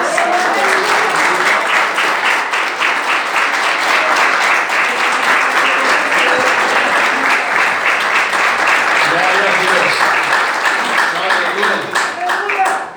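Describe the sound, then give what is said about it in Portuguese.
A church audience applauds loudly and steadily in worship of Jesus, a dense wash of many hands clapping that holds at an even level for the whole stretch, with faint voices mixed in underneath. “Eu agradeço a oportunidade e as palmas que adorem a Jesus.”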